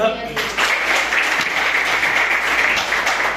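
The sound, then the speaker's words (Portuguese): A church audience bursts into steady, sustained applause as leadership of the evening service passes to the pastor, a dense wash of many hands clapping at a fairly loud, even level for a few seconds, following a brief spoken moment at the start. “E as palmas que agora recebem.”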